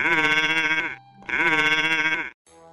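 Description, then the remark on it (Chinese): A young lamb bleats twice in a row, each cry loud, wavering and nasal, about a second long with a short pause between, and no voices. “这个时候，正好有一只狡猾的狐狸从井边经过，他听了小羊的呼叫声，就赶快过来。”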